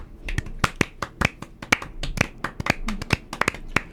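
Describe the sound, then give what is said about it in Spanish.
Applause from a crowd for a production team: a steady patter of overlapping hand claps with sharp individual slaps poking through, irregular and moderately loud, with no voices. “Un aplauso gigantesco”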